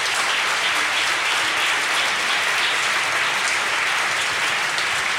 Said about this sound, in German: Wir sehen praktisch nichts. Lauter. Super, Applaus, super.